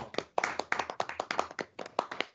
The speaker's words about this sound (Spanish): un detalle y un aplauso para toda esa gente de La Palma.